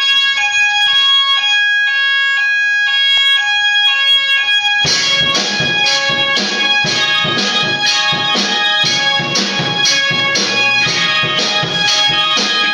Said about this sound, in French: Et tu sais à quoi ça me fait penser ce bruit Bah ouais. Des fois comme ça, il y a des bruits qui sonnent comme de la musique, ou des cris d'animaux. l'alarme incendie.